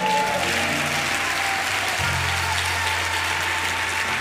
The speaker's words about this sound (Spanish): Denle un aplauso, Señor, fuerte.